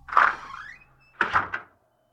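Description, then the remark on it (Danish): A back door creaks open with a rising squeal, followed by a few quick knocking thumps as it swings and settles, with no voices present. “Så han træder ind af bagdøren”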